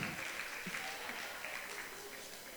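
An audience applauds steadily for a woman who has just arrived and is being handed a mug, a dense wash of clapping that holds at an even level for a few seconds before easing slightly at the end.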